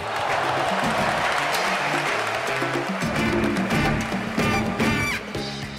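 A large stadium crowd claps and cheers steadily as Puerto Rico scores a basket in a basketball game, a dense wash of applause with scattered shouts rising over it, fairly loud and continuous throughout.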